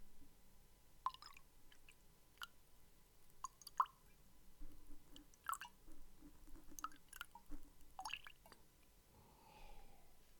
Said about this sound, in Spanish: Escuchen cómo me sirvo agua, para. Les voy a whisperear el agua un poco, miren.